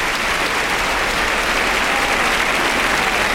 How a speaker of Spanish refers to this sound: Se agradece a los toreros, sale el Fandi, sale Manzanares. Por la boca del burladero de matadores, Juan Ortega se destocan. Y oigan, oigan la pedazo de ovación que se llevan los matadores.